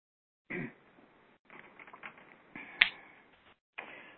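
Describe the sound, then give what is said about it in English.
Scattered finger snaps from several people as they come back to their bodies and open their eyes, soft and uneven at first, then one crisp, louder snap, followed by a few more faint snaps with brief quiet gaps between. “So when people feel comfortable, they can come back to their body and open their eyes and snap your fingers.”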